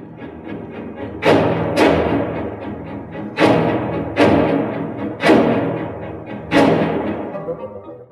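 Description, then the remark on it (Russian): An orchestral passage of strings and winds hammering out loud, heavy chords in an irregular, syncopated rhythm, with a dense sustained texture between the accented attacks. “Вот послушайте, например, кусочек из «Весны священной».”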